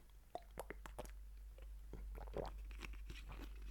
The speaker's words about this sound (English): The sound of me drinking Fiji water will put your broke ass to sleep.